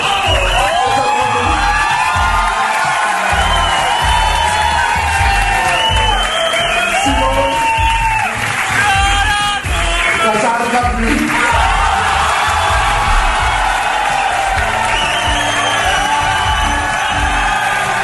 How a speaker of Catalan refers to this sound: I la sensació és que l'auditori està entregadíssim, eh?